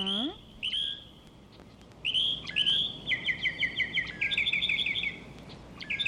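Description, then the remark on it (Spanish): A Mexican mockingbird (senzontle) sings loud and clear, in varied bright phrases: whistled notes, then rapid runs of repeated chirps, with a brief voice trailing off at the very start. “Es el senzontle, el pájaro mexicano de las muchas variadas voces.”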